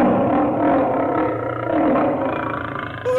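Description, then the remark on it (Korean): A tiger's deep, rumbling roar, loud, holds steady for about three seconds with a rough, growling texture and no voices. “호랑이다! 호랑이가 나타났다!”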